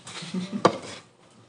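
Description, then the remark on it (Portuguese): A Stanley metal tumbler cup is dropped, landing with a sharp, bright clang that rings briefly, preceded by a few softer clattering knocks, then quiet. “derrubando o copo, copo Stanley.”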